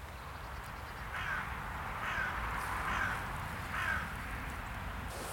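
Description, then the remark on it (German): A carrion crow caws four times in a steady, evenly spaced series, each call harsh and hoarse, over a constant low rumble and hiss of background noise. “Also das war eben die uns bekannte Rabenkrähe.”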